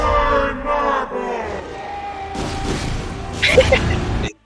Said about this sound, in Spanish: Ahí está, ahí está. Ah, ese pinche grito, güey.